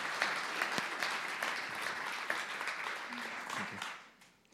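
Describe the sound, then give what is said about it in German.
Sustained applause from an audience in a sermon series, encouraging a woman coming forward to recite a poem about emotion, a dense crackle of many hands clapping at steady volume before tapering off near the end, with a brief voice faintly audible beneath. “Ermutigt sie mal mit einem kräftigen Applaus.”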